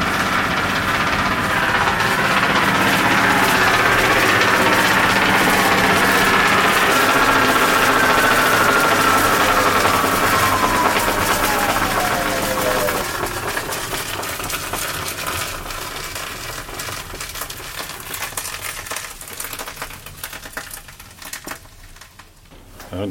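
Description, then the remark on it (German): The motor-driven belt drive of a mill runs steadily and loudly. Its belts, coated with belt wax so they grip the drive pulleys, smack rhythmically, with a whining tone that slides downward before the clatter eases and grows quieter. “Ja, man hört die Riemen ja. laufen.”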